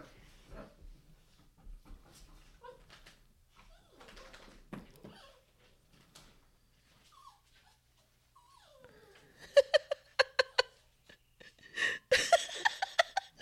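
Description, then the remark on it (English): A pet dog named Bunny barks in two quick flurries of sharp, high yaps, with softer whimpering and shuffling noises in the quieter stretch before them. “Bunny, don't bark.”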